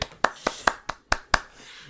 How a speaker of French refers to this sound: bravo, bravo, je bravo, j'applaudis.